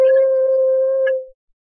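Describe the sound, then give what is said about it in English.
A loud, steady electronic hum from a time machine holds one unwavering pitch for over a second, flutters briefly near the end, then quickly fades out, leaving silence. No voices are present. “Only a noise, a uh, humming noise, nothing else.”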